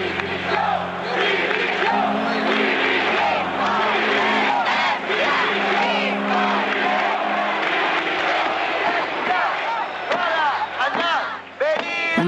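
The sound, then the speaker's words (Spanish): A large Nunca Máis protest crowd in Galicia, Spain, against the Prestige oil spill shouts and chants together, a dense, loud roar of overlapping raised voices that holds steady throughout, briefly dipping near the end before swelling again. “bandera gallega manchada de negro por el chapapote como símbolo y un grito de protesta que recorrió el país.”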